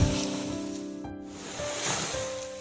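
Ocean waves rush and break on a shore in a steady, hissing wash that swells and recedes, with a soft sustained tone humming underneath and no voices.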